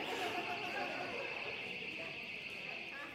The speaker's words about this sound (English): And uh, that is our alarm, so somebody can take care of it, Or it's a phone. Never mind, it's not our alarm, we're good.